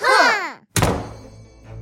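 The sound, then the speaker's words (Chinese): A creaking, whining squeal gives way to a brief pause, then a heavy castle door is slammed shut hard with one loud, deep thunk that rumbles and fades away. No one speaks. “全世界的王子和公主都生气了，他们回到自己的城堡里，用力的关门。”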